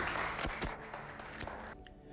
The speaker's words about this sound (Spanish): Dele la aplauso al Señor, hermanos.